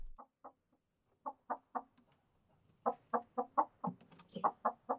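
chicken clucking

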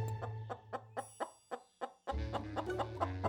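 hen clucking

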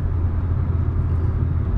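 car driving

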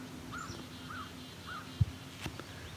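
crow cawing

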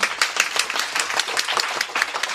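audience applause

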